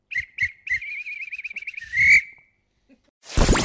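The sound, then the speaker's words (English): A referee's whistle, blown to signal the end of play, sounds three short sharp blasts, then one long, trilling blast that fades out, followed by a brief burst of noise. “Uh, if this were a real bit of extra time, this is when the ref will blow the whistle because it's finished.”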